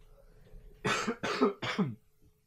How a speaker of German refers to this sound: Der ähm, alte Erkältete, ey. Äh. Genau. Wunderschön. Ich hoffe, ihr freut euch über meinen mein Husten. Das ist super.